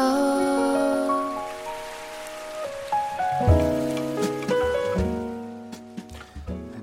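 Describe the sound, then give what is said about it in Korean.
A short musical jingle, the Korean radio show Kiss the Radio's logo played when it rains, with sustained melodic tones over steady rain sound effects, with low thumping accents joining midway; no one speaks. “비가 올 때마다 또 나오는 로고 페이지가 또만들어져비 오면 나오는 로고인가요?”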